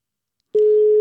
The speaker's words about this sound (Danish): Nå, men lad os lige ringe til øh, Farsom og høre, hvad han tænker om alt det her. Telefonen ringer hos Farsom.